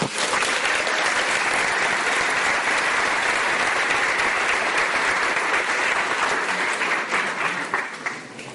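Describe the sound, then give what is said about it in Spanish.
A large audience claps steadily and loudly for several seconds, a dense wash of many hands that holds strong throughout and only begins to thin out at the very end. “Un aplauso para todos ustedes.”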